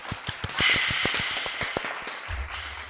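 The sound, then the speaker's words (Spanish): A short burst of clapping from a few people: quick, uneven claps overlapping for about three seconds, moderately loud, then a low rumble at the end as it fades. “Hay que, hay que aplaudirlo un poquito.”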